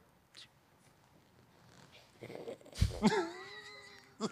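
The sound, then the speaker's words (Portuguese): A person imitates a pampered lady's house cat, giving a drawn-out, wavering meow with a soft breathy lead-in, fairly loud, after a quiet stretch with faint murmuring. “Imita um gato de madame, então. O gato de madame? Como é que faz?”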